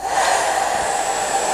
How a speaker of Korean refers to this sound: 이게 드라이기 소리입니다. 여러분들. 아침 많이 쓰시죠? 드라이기 소리. 드라이거 하면서 얘기하다 보면 서로 안 들리잖아요.